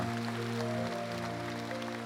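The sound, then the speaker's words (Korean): An audience applauds in thanks and encouragement to its first generation, in a steady, dense patter of clapping that holds at an even level throughout, with sustained keyboard chords ringing underneath. “그리고 그런 놀라운 수고와 헌신을 하신 우리 1세대들에게 다시 한번 감사와 격려의 박수를 올려드립니다”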